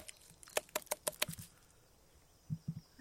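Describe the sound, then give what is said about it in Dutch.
A quick series of sharp, hollow knocks on the trunk of a tree with a nest in it, about six raps in a loose rhythm, followed by a few softer, duller thuds after a pause. No voices. “Klop even op de boom”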